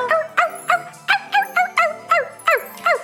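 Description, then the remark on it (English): A dog named Reindog, being called to play fetch, barks in a quick, steady run of about nine sharp, high-pitched yips, fairly loud, with no voices. “Where are you, boy? Who wants to play fetch? Come on, boy. Let's go find your ball.”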